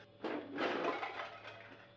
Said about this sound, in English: Did you hear that? Did you hear it? Dr. Reed must have knocked something over in the dressing room. Uh, a chair, huh? Yeah, yeah, a chair. A heavy chair, by the sound of it.